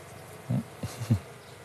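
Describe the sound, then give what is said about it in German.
Honeybees buzz around an opened hive as a beekeeper collects drones and worker bees, with a few short buzzing bursts rising over a steady low hiss. No one speaks. “Und dann sammelt Jakob Wegener auch noch einige Arbeiterinnen ein.”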